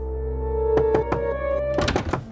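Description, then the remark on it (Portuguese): A bandit knocks on the door of a boarding house: three firm raps, a short pause, then a quicker cluster of three or four more, heard over a steady, sustained musical tone in the background. “Mas não era ela quem estava batendo a porta.”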